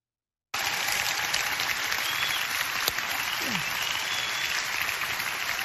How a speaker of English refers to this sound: Let's all worship God by clapping. Come on, clap your hand.